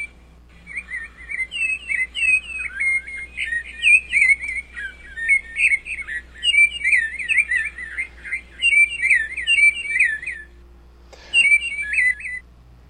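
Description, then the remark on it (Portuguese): A sabiá thrush sings a long, steady run of bright, fluting phrases, warbled one after another with short gaps, clear against a quiet background with a faint low hum. “Minha terra tem palmeiras, onde canta o sabiá.”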